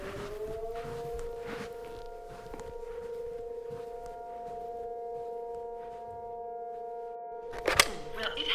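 A civil defense alarm siren sounds a steady, sustained tone throughout, rising briefly at the start and holding level, with faint background rustling and a short clatter near the end.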